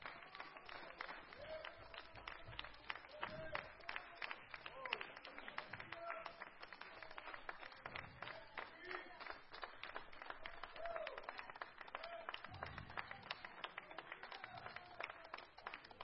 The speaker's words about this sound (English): Come on, clap your hands and rejoice in God right now.